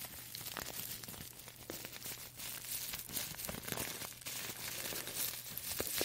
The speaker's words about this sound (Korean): 제가 티백 소리도 좀 넣어드리면서 이야기를 해보자면은 원래 제가 티백을 되게 많이 구입을 했었거든요.